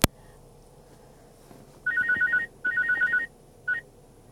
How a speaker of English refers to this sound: I had a phone call come in from like spam. I didn't want to talk to it.